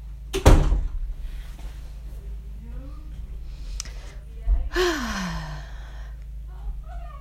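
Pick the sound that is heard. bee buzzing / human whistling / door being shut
door being shut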